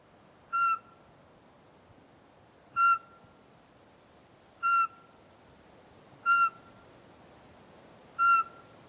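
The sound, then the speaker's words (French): The song of a Eurasian pygmy owl played back through a speaker: five clear, evenly spaced whistled hoots, each short and tonal, about two seconds apart over a quiet background with no talking. “Eh bien c'est bon, on n'a rien entendu, on va lancer la repasse.”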